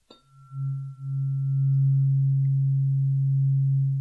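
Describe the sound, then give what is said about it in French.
A tuning fork is struck with a faint tap, then a steady low humming tone rings out and sustains evenly for several seconds, smooth and pure with no voices. “Donc celui-ci, par exemple, est une, un diapason 136 Hertz.”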